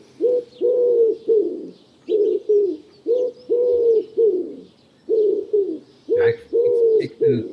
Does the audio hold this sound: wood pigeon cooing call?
yes